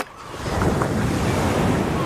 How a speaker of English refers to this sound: We're actually we're walking along the beach of that southwest English county, making our way along the swash and backwash of the Atlantic Ocean.